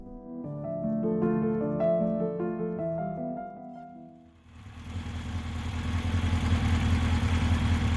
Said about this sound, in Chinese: 姐夫启动了摩托车